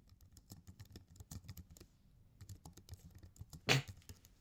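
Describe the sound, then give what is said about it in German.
Rapid, uneven clicking of keys on a computer keyboard, with a brief pause midway and one louder clack near the end. No voices. “Ah, am Ko äh, Tastatur tippen.”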